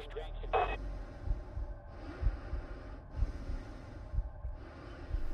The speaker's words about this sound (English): And so all you have is the sound of the spacesuit and of your own breathing and heart. And it's much like when you're listening to a radio broadcast, it's kind of like dead air.